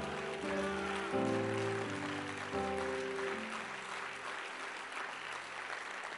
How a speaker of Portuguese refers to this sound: Se coloque de pé glorificando ao Senhor, batendo palmas a Ele, dizendo que Ele é poderoso em sua vida.